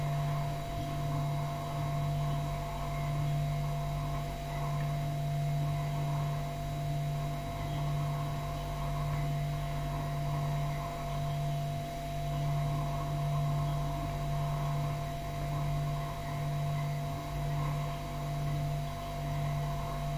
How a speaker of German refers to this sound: Kühlschrank